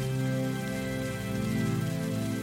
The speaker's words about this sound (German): Lifi tanzt im Gewitter, im Gewitter und im Sturm und saugt den Regen auf und sieht auch am allermeisten von den wunderschönen Blitzen, die am Himmel oben blitzen